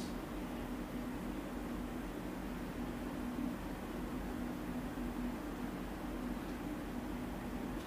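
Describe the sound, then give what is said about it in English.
A steady, low mechanical hum with a faint droning tone runs unbroken throughout from an air conditioner, with an even wash of airy noise and no voices. “You might also notice the sound of the air conditioning the sound of the bird songs, the crickets.”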